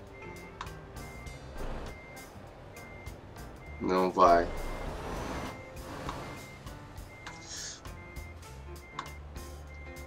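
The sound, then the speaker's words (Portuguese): A truck's reversing alarm beeps repeatedly at a steady rhythm over engine rumble as the truck maneuvers into a parking space, while a person speaks briefly partway through. “Ah, a gente vai ficar maçaricando até entrar na vaga. Eu sinto muito se você não gosta. E se você for o dono do caminhão também, meus pêsames.”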